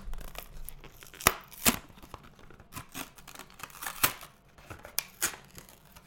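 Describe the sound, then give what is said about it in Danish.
A tightly sealed package being torn open from the back during an unboxing: a series of sharp, crackling rips at irregular intervals, with softer crinkling and rustling of paper or plastic between them, and no voices. “Så må jeg bare lige få klistermærket Nu skal jeg lige huske at gøre det op i mikrofonen, så vi får den der ASMR-lyd.”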